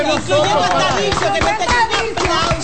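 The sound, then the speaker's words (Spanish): Applause from a group, with scattered, uneven claps sounding steadily for a few seconds while voices cheer and talk loudly over it, given as a tribute to the technical team of CDN Radio y Televisión. “Un aplauso”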